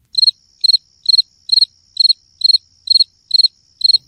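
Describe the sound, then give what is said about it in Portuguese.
A cricket sound effect: a cricket chirps in a steady, regular rhythm, about nine short trilled bursts evenly spaced over a few seconds, clear, with no other sounds around it. “Isso que vocês estão ouvindo é som de grilo, claro, não preciso nem dizer.”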